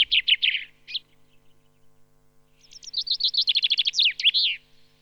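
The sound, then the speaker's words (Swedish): A male common chaffinch sings: a few brief notes, a pause, then a bright, accelerating cascade of descending notes that ends in a quick terminal flourish, clear, with no voices. “snorr på slutet har de ofta va?”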